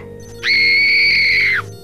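A police commissioner lets out a loud, sustained scream of pain as a nurse injects him, high-pitched and steady for about a second before dropping off abruptly, with only a faint low hum behind it.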